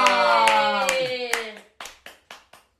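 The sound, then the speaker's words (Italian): Rhythmic farewell applause at the end of a weekly show: steady, evenly spaced hand claps, first over a loud sustained harmonic tone, then four sharp claps alone as the tone drops out. “vi salutiamo con un bacio, un abbraccio, un applauso.”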